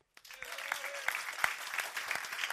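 A crowd breaks into steady applause, a dense wash of many hands clapping at a fairly loud, even level that holds for a couple of seconds, with a few sharper claps standing out.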